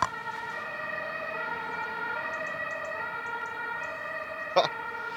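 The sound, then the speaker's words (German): An ambulance siren wails steadily in the town of Bad Ems, its sustained tone ringing and echoing between buildings for the whole stretch, with a brief sharp knock near the end. “Krankenwagen hat keine Vorfahrt. Ja, aber er hat ja seine Sonderrechte.”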